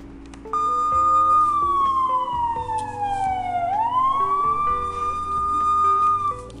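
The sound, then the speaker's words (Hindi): A loud police car siren wails, holding a steady high tone, sliding down in pitch, then swooping back up, over a low rumbling background. “आप भी सोच रहे होंगे पुलिस का सायरन क्यों बजाया जी हाँ, ये इसलिए अलार्म है कि कल थर्टी फर्स्ट अगस्त है tax income tax return file करने की लास्ट डेट”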